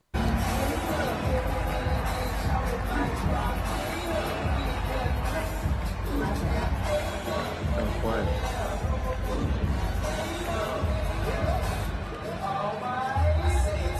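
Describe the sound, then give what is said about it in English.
A packed arena crowd roars and cheers without letup as a player comes out for his warm-ups, a dense wash of many voices holding steady and loud, with occasional thuds beneath the din. “There's nothing like the sounds of a stadium or arena or or stadium or an arena.”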